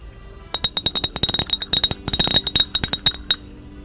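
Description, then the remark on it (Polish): Sleigh bells jingle in a quick, irregular shimmer of bright metallic rattles for about three seconds, then stop; no one speaks over them. “Co to dzwoni? To dzwonią renifery.”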